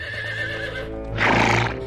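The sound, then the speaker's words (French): A horse ridden by Merlin with Uther atop an immense cliff on a summer evening whinnies loudly, its neigh rising and swelling into a harsh peak, with faint clip-clopping hooves underneath. No one speaks. “Un soir d'été, alors qu'il se promène à cheval avec Uther au sommet d'une immense falaise,”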